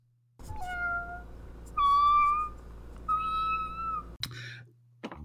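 A cat mewls plaintively, a few drawn-out, wavering meows following one another with short breaks, loud and clear with no talking.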